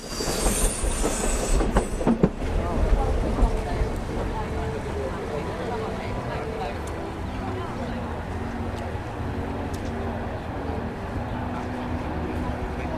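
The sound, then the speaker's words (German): A passenger train travelling from Russia into Finland toward Helsinki, past forests and lakes, rolls steadily along the rails with a continuous low rumble and rhythmic wheel clatter, opening with a brief high-pitched squeal before settling into an even roar. “Grenz- und Zollkontrollen finden im Zug statt und anders als bei meiner Reise mit dem Bus nach Petersburg komme ich in Helsinki ziemlich entspannt an.”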